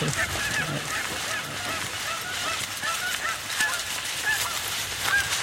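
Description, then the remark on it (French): Geese honking repeatedly in a noisy, overlapping chorus, steady throughout, with no one speaking. “Et comme ça, Ardent peut aller traumatiser les oies.”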